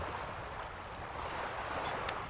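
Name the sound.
wind by the sea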